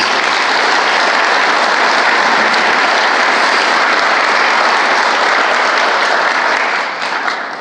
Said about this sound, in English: So obviously, we thank you guys. Give them a big round of applause, please.